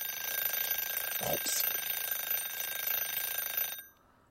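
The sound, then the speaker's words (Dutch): An alarm clock rings continuously in a steady, dense electronic trill for nearly four seconds, fairly loud, then stops abruptly. “Ja, het is die wekker.”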